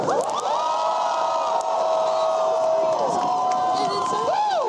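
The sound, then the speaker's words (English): A large crowd at an outdoor Black Lives Matter rally in the cold cheers loudly and steadily in response to a call to make noise. Overlapping shouts and high whoops rise above a continuous roar of many voices for several seconds. “So I need you to make some noise in Black Lives Matter.”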